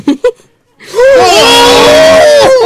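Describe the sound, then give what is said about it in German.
A person vocally imitates a gull: two short breathy bursts, a pause, then a long, loud, strained wailing screech with wavering pitch that bends up and down before cutting off. “Und der Schrei, der aus dem Schnabel der Möwe, so, ihr könnt euch vorstellen, so eine ungefähr das Aussehen von Lachmöwen, aber so die Größe von Sturmvögeln.”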